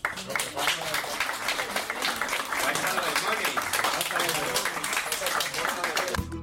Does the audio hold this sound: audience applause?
yes